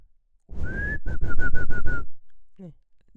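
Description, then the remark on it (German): A person whistles, first one sustained rising note, then a quick run of about six short repeated chirps, the way someone calls a dog, with breathy rumble beneath and a brief vocal sound after. “das ist doch eher das Pfeifen nach einem Hund.”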